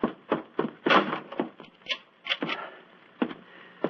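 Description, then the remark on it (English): A door is pushed shut and locked: a cluster of dull thuds and knocks, then a few sharper clicks and rattles from the latch, with no talking. “Follow me. Lock the door behind you.”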